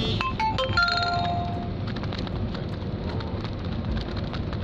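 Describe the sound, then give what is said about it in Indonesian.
Steady, fairly heavy rain pours down with a dense, continuous hiss and patter throughout, with a few brief electronic tones chiming faintly near the start. “seperti kemarin hampir beberapa hari ini kalau malam hujan”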